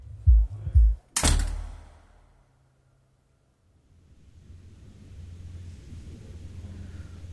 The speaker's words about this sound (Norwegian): Nå er jeg i fengsel, og natten min starter med en dør som blir lukket og låst.